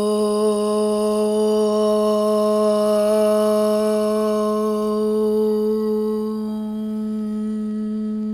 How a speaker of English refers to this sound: And then take an inhale for one sound of om.